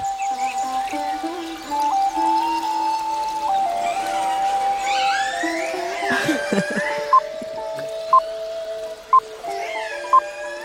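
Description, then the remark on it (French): Long, wavering whale calls blend with steady pan flute tones over the soft wash of a running stream, with rising sweeps midway and short repeated notes toward the end. “On pourrait même rajouter des, cris de baleine.”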